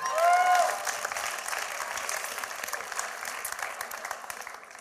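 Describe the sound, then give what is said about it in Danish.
A crowd applauds steadily, a dense wash of clapping that starts loudest and tapers slightly over several seconds, with a brief whistle or cheer near the beginning. “Skal lige give en kæmpe stor hånd?”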